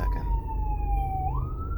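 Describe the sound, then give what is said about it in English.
An ambulance siren wails steadily as the ambulance approaches, its tone gliding slowly downward before jumping back up, heard over the low rumble of road and engine noise from inside a moving car. “Hold on, there's an ambulance coming.”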